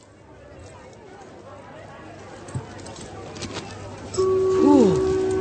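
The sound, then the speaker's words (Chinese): A bustling department store crowd of shoppers looking for special offers: a steady murmur of many indistinct voices, a couple of soft knocks, and near the end a clear sustained tone that warbles and slides downward over the chatter. “现在您就这么听听熙熙攘攘的人群里的声音。”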